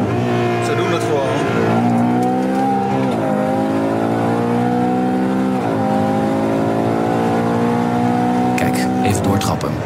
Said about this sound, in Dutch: En we hebben ook een Ferrari gereden. Dat kan niet anders. Het mhm. is dus de Puro Sanke, dat is geen SUV. Noem het echt geen SUV, maar ja, een soort crossover. Maar eigenlijk stiekem wel een SUV. Met een heerlijke dikke V12.